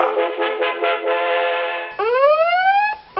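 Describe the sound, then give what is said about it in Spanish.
A Pegase GPS anti-theft alarm on a motorcycle blares loudly on its own, first a rapid warbling tone, then switching to repeated rising whoops that sweep upward in pitch. “Alarma antirrobo GPS Pegase.”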